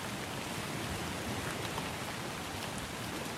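Steady rain falls late at night around a home in a continuous, even hiss with no pauses or changes, a dense wash of drops filling the whole stretch at a moderate, constant level, with no voices.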